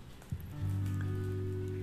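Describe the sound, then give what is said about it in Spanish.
Gentle morning rain patters steadily on a surface, a soft continuous wash of drops, joined partway through by a steady low humming drone that persists to the end. “Hemos amanecido aquí una hermosa mañana, está lloviendo, no sé si podés escuchar un poco la lluvia que está golpeando”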